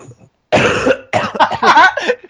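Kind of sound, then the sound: human body sound, coughing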